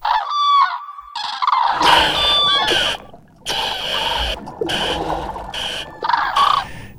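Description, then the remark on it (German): Loud, repeated trumpeting calls of common cranes, several birds overlapping in harsh, honking bursts with brief pauses, rising and falling in a ragged chorus with no talking. “Bei seiner Größe und lauten Stimme macht er sich auch als solcher noch leicht bemerklich”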